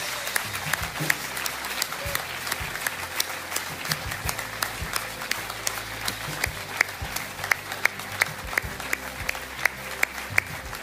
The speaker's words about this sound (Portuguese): Podemos dar uma grande salva de palmas a todas estas pessoas.